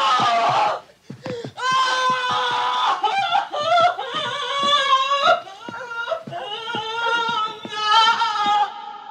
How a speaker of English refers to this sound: I think it's time for that day after scream again.